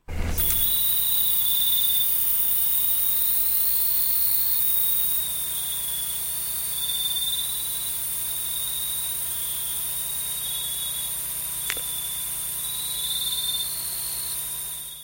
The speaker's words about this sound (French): on, devrait entendre normalement beaucoup de sons beaucoup beaucoup d'insectes qui chantent